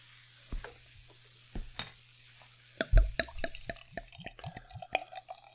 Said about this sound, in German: Oh, das ist aber ein helles. Und das hat auch Power. Ich höre das bis hier sprudeln.